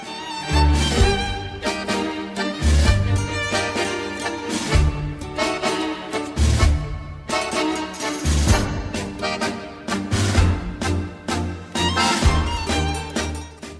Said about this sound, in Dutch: Komt trouwens net als de tango die je hoort uit Argentinië.